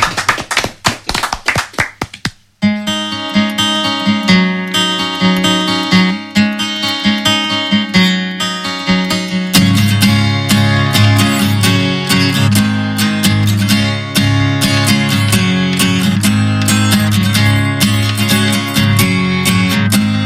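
A pop song plays loudly on the 100.5 FM radio station, opening with a crisp tapping, clap-like beat before sustained chords fill in, and a deep bass enters about halfway through. No singing or talking.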